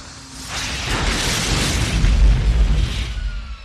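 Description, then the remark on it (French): A loud explosion of an artillery shell falling back to the ground swells into a deep, rumbling boom with a gritty crackle of debris, sustained for a few seconds before fading slightly; no one speaks. “Au bout d'un moment, l'obus perd de la vitesse la force de gravité la tire vers le sol et il finit par, par retomber.”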